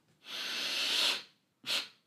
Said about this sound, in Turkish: Teknik aynen şu. Derin bir nefes alıyorsun. Bir fırt daha çekiyorsun.